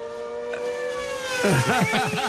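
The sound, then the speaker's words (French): A voice imitates a motorcycle engine: a steady droning hum that breaks into a series of rising and falling revs, fairly loud, lasting a couple of seconds. “non, ça c'est une moto, ça.”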